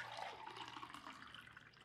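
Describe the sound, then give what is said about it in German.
Filtered water pours steadily for a couple of seconds, a continuous splashing trickle, fairly quiet, with no one talking. “Das ist ähm, ein bisschen gefiltertes Wasser, dass man auch hydrated bleibt.”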